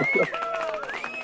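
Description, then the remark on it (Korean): A brief, light round of applause from a few people on a radio show after a guest's short message, quick scattered claps at moderate loudness, with voices mixed in underneath. “어 소소한 박수 나가는데 그래요.”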